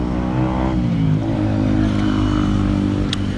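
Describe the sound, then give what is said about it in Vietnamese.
A loud motorbike with a modified, oversized exhaust revs with a harsh, throaty exhaust tone, its pitch climbing and then sagging, droning on steadily amid traffic noise on the street beside a sidewalk café, with a brief sharp clack near the end. “nay là cái quán mình ngồi ở ngoài vỉa hè uống cà phê á thì ngồi vỉa hè nó mát nhưng mà có một cái là xe chạy qua chạy lại nó hơi ồn à nó lâu lâu có mấy thanh niên đổ bô à.”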